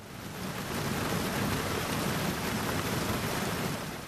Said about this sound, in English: During these speeches, it started raining cats and dogs, or maybe goats and chickens.